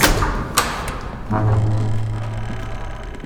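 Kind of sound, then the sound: household object, door opening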